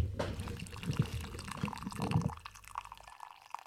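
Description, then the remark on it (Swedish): Freshly brewed coffee being poured into a cup as a refill, a steady liquid splash that gurgles and trickles for a few seconds, then slows and fades out into quiet. “Åh hörde det goa ljudet av nybryggt.”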